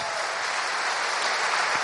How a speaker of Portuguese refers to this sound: O que eu estou achando fantástico é que as próprias mulheres estão aplaudindo elas mesmas num gesto de humildade.